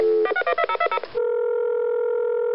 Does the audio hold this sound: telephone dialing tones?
yes